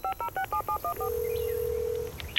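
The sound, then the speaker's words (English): Seven quick touch-tone keypad beeps in a steady rhythm, each a paired tone, as someone dials a phone to call a fireworks manufacturer, followed by a long steady tone, clear with no talking. “I'm gonna call up the manufacturer.”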